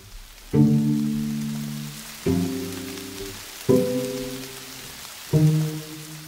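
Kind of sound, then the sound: nature, rain falling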